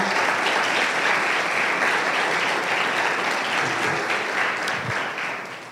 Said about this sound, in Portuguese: Você pode aplaudir ao Senhor?